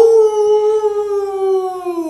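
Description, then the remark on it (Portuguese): A person imitates a she-wolf howl with one long, loud, steady note that glides slowly downward in pitch over about two seconds, heard alone. “Ai, ai, ai, ai, ai, faz o uivo da loba aí, galera!”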